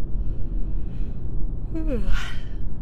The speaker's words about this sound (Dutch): Zoals altijd, even een gaapje tijdens de podcast. Heerlijk. Lekker loslaten.